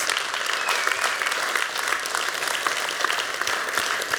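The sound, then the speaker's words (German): An audience at the ZKM applauds steadily. Dense, overlapping claps form a continuous, bright wash of sound that stays at an even, fairly loud level throughout, with no voices standing out. “Also ganz großen Applaus.”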